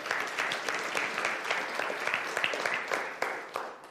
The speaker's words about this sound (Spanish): Denle un fuerte aplauso al Señor, aleluya.